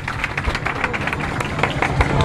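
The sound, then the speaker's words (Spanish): An audience at a useless-talent contest breaks into steady applause, a dense wash of many hands clapping at once that holds at a fairly even, moderately loud level for a couple of seconds. “Aplauso se lleva”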